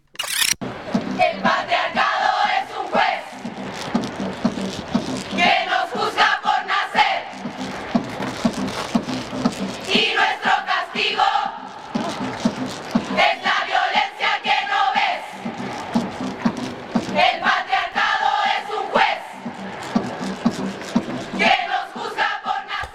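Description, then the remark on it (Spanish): A large crowd of women chants 'el violador eres tú' in unison in the feminist protest performance by the group Las Tesis from Chile, their voices rising in loud rhythmic bursts every few seconds, with a dense, reverberant outdoor sound as the chant repeats throughout. “Bueno, creo que vos también reconoces y, las oyentes y las oyentes también reconocen el, el violador eres tú en la performance de las, de las tesis.”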